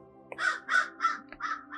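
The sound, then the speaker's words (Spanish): A real bird outside, not a sound effect, gives a run of harsh, crow-like caws, five or so in steady rhythm, clear over a faint background hum, with no one talking. “tengo los pájaros, eso que siempre me hacen así como místico, eso no es un efecto de sonido, eso es un ave de verdad.”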